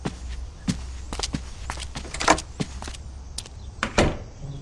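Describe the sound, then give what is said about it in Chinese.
Several sharp, irregular footsteps and knocks, then a door shuts with a firmer thud near the end, over a low steady hum and no talking. “关门调教，此时不偷听，更待何时？”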